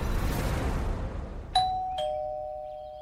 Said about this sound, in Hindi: अगली सुबह फिर से डोरबेल बजती है